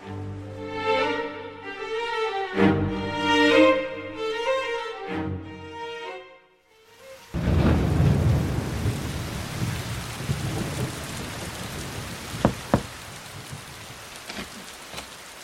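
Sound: rain falling with thunder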